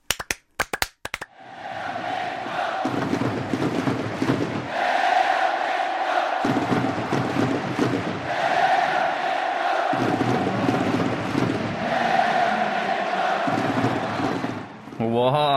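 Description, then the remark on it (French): A huge crowd of football fans at a match with visiting Paraguay in Korea chants in unison, a repeating rhythmic phrase swelling and dipping every few seconds, with bursts of clapping and cheering rising between the loud sung lines. “Et oui, ça donne autre chose quand c'est des millions de personnes qui le font en même temps.”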